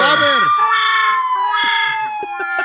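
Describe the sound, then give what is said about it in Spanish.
A police car siren wails loudly, its shrill, harmonic-rich tone rising and slowly falling in swelling cycles, with short choppy low bursts breaking in toward the end. “Y cuando se va poniendo a la paz el carro, que era el policía, amigo.”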